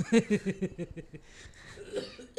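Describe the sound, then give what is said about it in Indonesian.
A quick run of coughs, five or six short raspy bursts, fading into quieter breathy noise and a faint trailing sound. “Batuk.”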